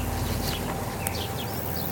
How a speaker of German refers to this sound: Es ist lauschig. Blumenwiese, Vogelgezwitscher. Maisfeld. Alles da.